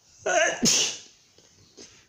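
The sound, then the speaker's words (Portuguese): A single loud sneeze: a quick voiced gasp followed by a sharp, hissing burst, then a faint breath as things quiet down. “Espirrei.”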